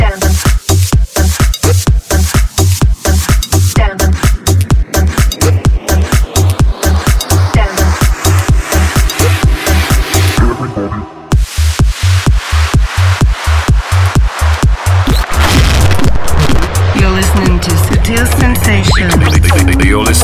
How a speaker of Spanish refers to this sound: eso es Tech House, divertido a saco y seguro que va a funcionar a la perfección.